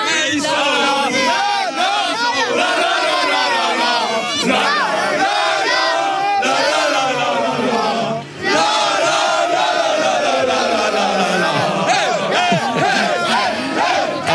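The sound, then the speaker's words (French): A loud, dense chorus of football supporters in Doha chants and sings together without pause, many voices blending into a rowdy, wavering melody that fills the whole recording. “sa chorale en direct de, de Doha.”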